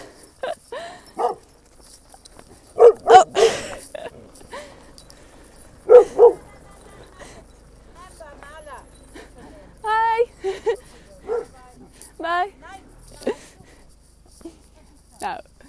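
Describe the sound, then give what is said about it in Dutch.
Three dogs running along a road toward the speaker bark in two short clusters of sharp barks, followed by a run of high, wavering yips and whines, with faint background noise in between. “En er komen nu een paar honden op me af.”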